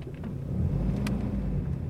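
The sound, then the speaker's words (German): Steady low road rumble from inside a moving car driving through the city centre of Tel Aviv, Israel, in February 2022, with a continuous engine and tire drone and a few faint clicks and rattles above it. No one speaks. “Jetzt sitzen wir im Auto und fahren durch die Innenstadt.”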